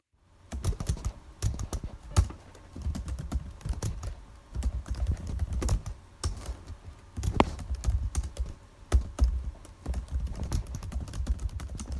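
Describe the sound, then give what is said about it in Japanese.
Steady typing on a computer keyboard at 6 a.m. at home, someone doing home-based work on a PC, with a quick irregular patter of key clicks and occasional heavier keystrokes. Nobody speaks, and it continues throughout. “朝6時キーボードを叩く音です、えー、私は在宅のささやかな仕事をしております、えスズメの涙程度の稼ぎですが家族が起きぬようこそこそパソコンを起動仕事をこなし6時になったらデータを保存して終了えー、キーボードを意識高い系っぽく叩いてみましたと”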